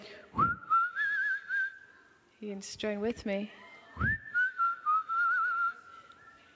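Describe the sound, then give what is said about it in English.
A person whistles a melodic tune in two long phrases, clear, with a short spoken line breaking in between them. “I just want to start whistling.”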